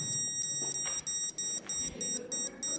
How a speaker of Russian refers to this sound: и он пищит чуть-чуть. Если я подхожу к стене,